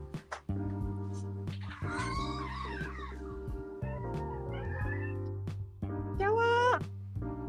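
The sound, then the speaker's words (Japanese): A cat that has come to be let in meows several times, its drawn-out, rising and falling cries standing out clearly over a low steady background hum, with a final loud, strained meow near the end. “猫が来たから猫入れていいいいよ。あ、声聞こえた。”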